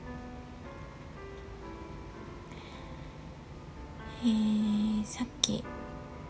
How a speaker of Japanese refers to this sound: スコールがね降り出してょっとどしゃどしゃ音が入っているかもしれないんですがしばらく降り続けそうなのではい諦めて収録しています